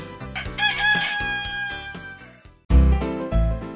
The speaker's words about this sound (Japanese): っていうか今あの、隣向かいのお家の鶏がもう泣いて、朝だべーって言ってる。朝だべーって言ってるよ。田舎の朝は早いなさっき新聞屋さんも来たし。泣いてるよ、鶏すげー。たまげだ。